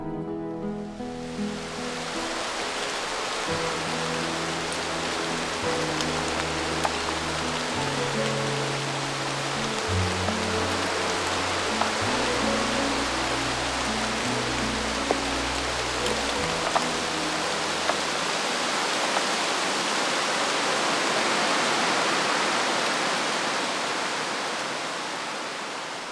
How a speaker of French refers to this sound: Il pleuvait fort et tout le monde était mouillé jusqu'à l'os.